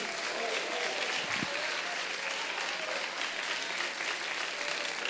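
A church audience claps steadily and loudly throughout, applauding to the Lord, a dense, continuous wash of applause with no pauses, a few faint voices mixed underneath.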